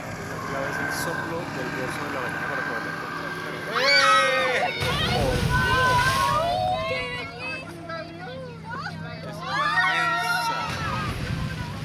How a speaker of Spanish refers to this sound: Escuchan, escuchan los gritos de la gente. Otra vez está saltando, dos veces ha saltado.